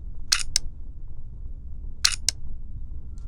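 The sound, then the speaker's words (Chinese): Two shutter releases of a Ricoh camera, each a quick double click — a sharp snap followed by a second click a beat later — separated by about a second and a half of quiet low hum. “然后拍下去的话就是这个声音”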